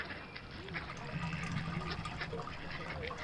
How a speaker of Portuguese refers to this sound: que soa a água que deve correr aí de uma fonte qualquer.